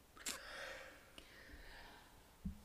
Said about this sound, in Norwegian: Å, du store min tid. Begynner å bli trøtt? Gapa litt.